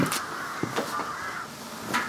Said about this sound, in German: Krähen sind ja auch immer auf dem Boot, mitten auf dem See